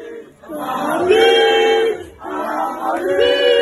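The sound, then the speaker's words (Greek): A young voice, a child given the microphone, sings the Real Madrid anthem in two long, held phrases, loud and steady, over a roaring, cheering crowd that fills the background throughout. “Το πιτσιρικάκι λοιπόν, του δώσαν το μικρόφωνο και είπε τον ύμνο τη Ρεάλ.”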